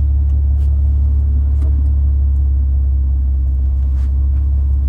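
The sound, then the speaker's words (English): A train rumbles past with a heavy, steady low roar that holds at an even loudness throughout, with a few faint higher clicks over it and no talking. “Please tell me there's not a train here.”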